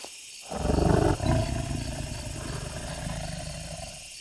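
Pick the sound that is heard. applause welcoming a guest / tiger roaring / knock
tiger roaring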